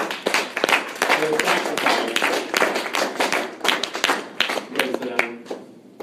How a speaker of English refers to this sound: Let's give these folks a big hand clap today.